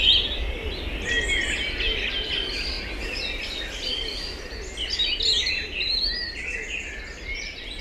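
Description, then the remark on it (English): Several birds sing and chirp at once in a busy outdoor chorus, bright overlapping calls over a steady low background rumble, with no one talking. “And on today with Claire Byrne, journalist Kathy Donaghy was helping us to take a moment to listen to the soothing sounds of birds.”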